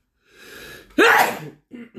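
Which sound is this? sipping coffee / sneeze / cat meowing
sneeze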